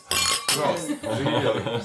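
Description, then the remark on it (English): Glasses clink together in a toast at Schloss Laudon, a couple of bright chiming knocks, followed by overlapping chatter and voices from several people. “Yes, cheers. Cheers.”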